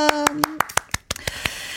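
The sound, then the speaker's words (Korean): A short burst of applause: roughly a dozen sharp, crisp hand claps in a quick, slightly uneven rhythm, with a brief trailing voice at the start. “박수 한 번!”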